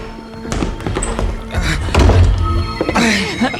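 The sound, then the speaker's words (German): A door being opened amid a cluster of heavy thunks and knocking clatter, with a deeper rumbling thud midway and a short muffled vocal sound near the end. “Tür auf!”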